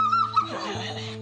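A hand-raised wolf named Yang Erbao, lying on the ground, growls after being provoked: a thin, high whine at the start gives way to a low, steady, rumbling growl that holds for about a second, moderately loud, with no talking.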